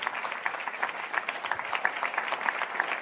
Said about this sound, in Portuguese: Eu queria que você aplaudisse o Senhor pelo que, pelo que Deus está fazendo.